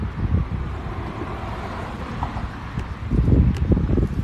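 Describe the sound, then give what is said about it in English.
Steady low rumble of cars passing outside, broad and somewhat muffled, swelling louder toward the end as a vehicle seems to go by. No one speaks. “some cars on the other side. Sorry for the loud noise, y'all.”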